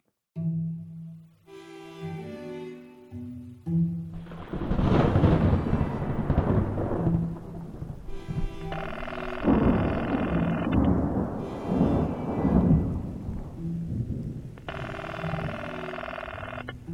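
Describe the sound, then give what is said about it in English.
Two long, loud rumbles of rolling thunder from a storm with lightning striking Federal Hill and the lower city build and fade over several seconds each, set against sustained, eerie tonal music that continues between the crashes. “That happens sometimes in these storms.”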